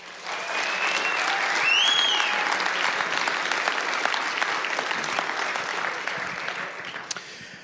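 A sustained round of audience applause for a guest speaker, dense clapping from a sizable crowd that swells early, holds steady for several seconds, and gradually tapers off, with a faint cheer or whistle near the start.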